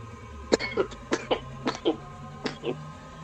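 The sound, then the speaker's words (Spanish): A string of short, harsh coughs mixed with throat clearing, about five or six bursts in a rough uneven rhythm, fairly loud with no talking. “¿Me pueden recomendar un jarabe para la tos?”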